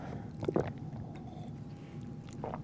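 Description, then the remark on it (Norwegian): Two wet gulping swallows of coffee, one early and a fainter one near the end, with a soft squishy throat sound over a steady low background hum. “Nå skal jeg prøve å svelge, og så skal du prøve å svelge.”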